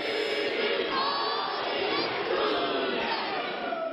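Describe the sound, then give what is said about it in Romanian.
A Maori haka war cry in the New Zealand parliament, the cry of its youngest member, a 21-year-old Maori woman. It is chanted by a group, loud and forceful, with many voices shouting together in a steady, driving rhythm that fills the whole stretch without pause. “Ce ați auzit este strigătul de război al celei mai tinere parlamentare din Noua Zeelandă, o tânără maori de 21 de ani.”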